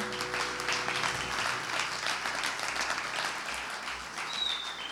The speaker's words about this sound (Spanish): denle un fuerte aplauso a su Señor, iglesia.